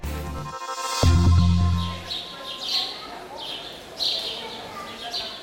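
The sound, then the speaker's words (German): Several small birds chirp in short, repeated bursts against a busy outdoor background, with a low hum at the start, as sparrows twitter in a pedestrian zone with street cafés. “Eine Fußgängerzone mit Straßencafés. Um die essbaren Krümel kümmern sich hier die Spatzen”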